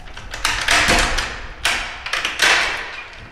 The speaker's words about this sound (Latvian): Durvis atver